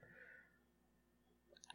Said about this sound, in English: I always call this guy I'm typing into the phone to get this guy's number.